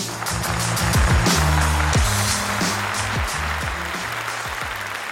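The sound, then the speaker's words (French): An audience at Montreux Comédie claps and cheers steadily throughout as the next comedian, Thanos, is welcomed, a dense wash of applause with scattered shouts and whoops rising above it, loud, with no one speaking. “Préparez-vous maintenant à accueillir notre prochain artiste et faites du bruit, où que vous soyez, pour Thanos!”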